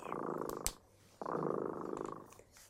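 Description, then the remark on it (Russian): A cat, Dremota, purrs in two long, rumbling cycles separated by a short pause, with a steady fluttering rhythm throughout and no one talking. “Слышите, кот Дремота запел свою песню.”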